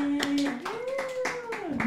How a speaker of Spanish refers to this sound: ¡Aplausos a los invitados!